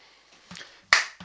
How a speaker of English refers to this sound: You- that, that is a meek clap. It was quite meek,